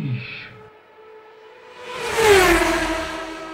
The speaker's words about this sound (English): that sound was just a sound effect of a fast car